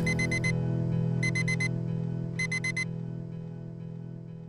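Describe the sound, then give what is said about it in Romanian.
An alarm clock rings in three quick bursts of rapid, high-pitched beeps, each group of four tones separated by short pauses, sounding clear over a steady low background hum. “mă gândeam că mi-ar plăcea să mă îmbăt cu tine – iar dimineața să mă apropii tandră de patul în care dormi și să te izbesc cu ceasul deșteptător”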